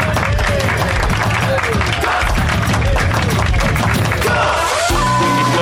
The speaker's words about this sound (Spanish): Y un aplauso por ella. Un aplauso.